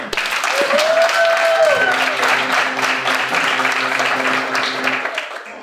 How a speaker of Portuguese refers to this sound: Tá então, palmas